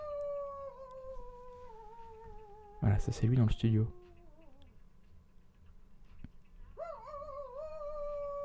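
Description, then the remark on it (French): A man's voice imitates a wolf, holding a long, slowly falling howl, then a brief burst of speech, then another howl that rises and wavers. Fairly loud. “Et s'éclater à faire le loup.”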